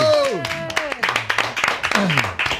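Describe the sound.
An audience claps in a steady, fairly dense patter for a couple of seconds, welcoming a guest, while voices whoop and call out over the applause.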